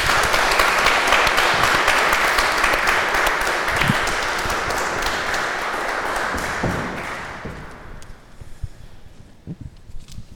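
An audience applauds two speakers, clapping steadily in a dense, crackling wash of many hands, holding loud for several seconds before thinning out and fading into a few scattered final claps.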